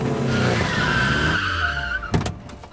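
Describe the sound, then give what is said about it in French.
A Santa Fe car zigzags and brakes hard in front of the Gare du Palais train station in Québec, with a long, loud tire screech under engine noise, the squeal fading as it comes to a stop, followed by a couple of sharp clunks. “Je consulte ma montre devant la gare du Palais à Québec quand une voiture zigzag contre un trafic inexistant et s'arrête devant moi en faisant crisser ses pneus.”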